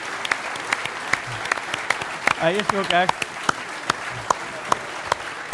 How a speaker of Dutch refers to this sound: Dus een groot applaus